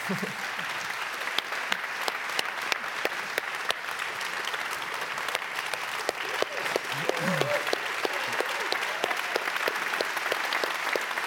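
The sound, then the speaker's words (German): Sustained audience applause, a dense steady patter of many hands clapping for about eleven seconds, with a few faint voices briefly rising in the middle. “Dein Applaus.”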